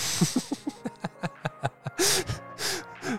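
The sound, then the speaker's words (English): A loud sneeze: a quick run of short catching breaths builds up, then two sharp, hissy bursts explode out, with no talking. “And bless you.”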